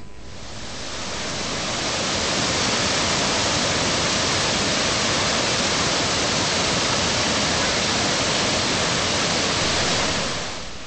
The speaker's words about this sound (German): Und zum anderen für die wohl schönsten Wasserfälle auf Erden, die mächtigen Cataratas do Iguaçu deren Rauschen bei jedem Besucher einen bleibenden Eindruck hinterlässt.